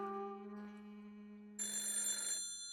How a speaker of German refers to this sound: Hunkeler hörte das Telefon im Gang klingeln.